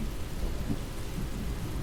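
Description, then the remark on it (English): Steady, muffled rain drums outside a car, a continuous low rumbling hiss with no breaks and no voices, even in loudness throughout. “The sound of the cars and then the rain outside, cars flying past, and now the windscreen wipers.”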